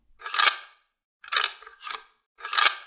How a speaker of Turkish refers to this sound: Ve anahtar hala dönüyordu.